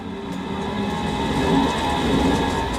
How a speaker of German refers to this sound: Wir sind heute auf Schienen unterwegs und zwar in der S-Bahn